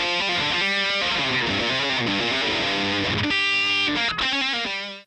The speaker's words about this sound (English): Then you can choose a stomp box. So there's a classic distort, uh, the classic distortion, which is the one that's already kind of loaded up as a preset. So again, there's your tone, and with it on, you can hear that it's now a bit noisier.